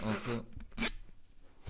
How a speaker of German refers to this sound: Kannst du das wieder an deinem, an, deinem, an deinem Mikrofon rubbeln? Da?